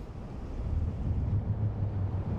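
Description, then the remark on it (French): A strong wind blows steadily at a lighthouse at night, a continuous rumbling roar with heavy low buffeting and a hiss of noise, holding a fairly even loudness throughout with no voices. “Le vent s'était levé et il ne pouvait pas rester dehors très longtemps.”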